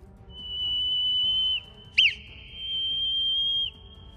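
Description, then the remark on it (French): A whistled Morse letter K: a long steady whistle, a quick short chirp, then another long whistle, clear with no talking. “Par exemple, la lettre K qui s'écrit trait, point, trait sera”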